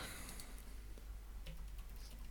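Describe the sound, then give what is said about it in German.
Faint, scattered clicks of typing on a computer keyboard, a few sparse keystrokes tapping at an uneven pace over a low, steady background hum, with no one speaking. “Ach, scheiße, was habe ich denn jetzt gemacht? Falsche Tastatur.”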